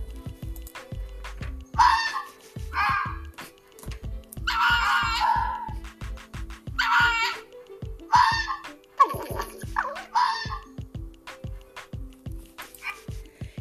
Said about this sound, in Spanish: ¿Y cómo se imaginan que es la zorra? Inteligente, astuta. ¿Y sabes cómo grita o aúlla una zorra?